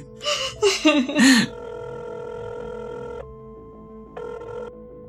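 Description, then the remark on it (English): A voice warbles a quick, sing-song imitation of a phone ringing, followed by a steady electronic ringtone that sounds loudly for about two seconds, pauses, then briefly rings again. “Wow, that ringtone sounds just like you saying ring, ring.”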